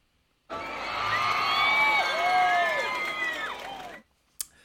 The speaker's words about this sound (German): So, hier Klatschgeräusch einfügen wird. Ach so, warte. Hab ich. Habe ich Klatschgeräusch, haben wir Applaus hier.